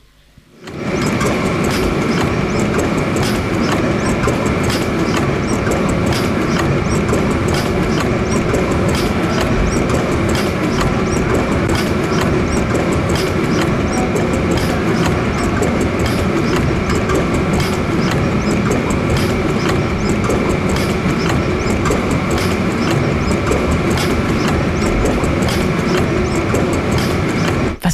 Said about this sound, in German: Also während der Vorführung des Dieselmotors gibt mhm. es eine sogenannte Langsamlaufphase. Da wird also sozusagen die Drehzahl ungefähr auf knapp 100 Umdrehungen pro Minute.